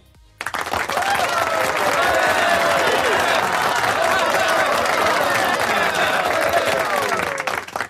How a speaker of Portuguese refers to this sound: uma salva de palmas pro Guilherme